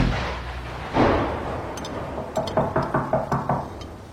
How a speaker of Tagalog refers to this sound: Hindi pa man kami nakakatapos maghapunan ay may narinig na kaming isang malakas na katok sa pintuan.